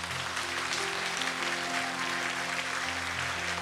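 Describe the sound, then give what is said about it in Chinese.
A large crowd at a church service claps steadily in sustained applause, given to God after a prayer: a dense continuous patter of many hands, while low sustained tones hum faintly underneath throughout. “把掌声要归给神。”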